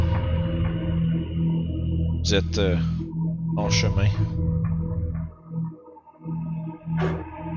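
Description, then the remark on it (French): A low, moaning wind howls steadily in the distance at night, a droning, eerie tone that never lets up, while a voice speaks briefly over it. “Il un espèce de vent qui se fait euh, entendre qui hurle un peu à, la distance dans la nuit.”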